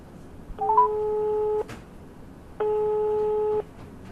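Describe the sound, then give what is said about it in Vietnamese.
A phone ringback tone sounds twice, each steady one-second burst separated by a pause of about a second, clear and fairly loud against a quiet background, with no one speaking, as someone phones a fashion designer friend. “Đúng rồi, phải gọi điện thôi.”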